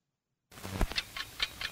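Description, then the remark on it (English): A ticking bomb in a 1973 Batman and Robin public service announcement counts off steady, evenly spaced mechanical ticks, about five per second, clear, after a moment of silence, with a faint low rumble underneath. “A ticking bomb means trouble for Batman and Robin.”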